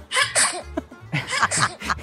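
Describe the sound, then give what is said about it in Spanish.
A baby sneeze sound effect track found on Spotify: a string of tiny baby sneezes, several quick high-pitched bursts with small breathy squeaks between them. “tengo, este otro que me encanta que se llama Efectos Sonidos estornudo de bebé”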